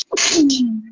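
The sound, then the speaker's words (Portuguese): A single loud sneeze: a sharp hissing burst of breath followed by a voiced, falling tail, heard on its own without any talking. “Saúde.”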